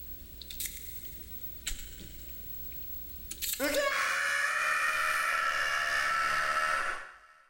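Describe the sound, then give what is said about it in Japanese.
After a few soft rustling clicks, a man, the story character Oda Nobunori, suddenly lets out a loud, piercing scream the moment he wakes up in the morning, rising sharply and holding for about three seconds before cutting off. “その朝、起きるなり、織信則夫は悲鳴を上げた。”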